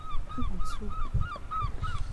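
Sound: seagulls calling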